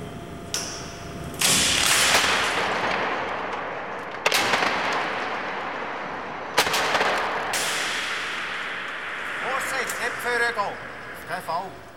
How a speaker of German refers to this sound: Zum Beispiel die CFK-Bänder zur Verstärkung von Betonträgern. Da wird belastet, bis es knallt.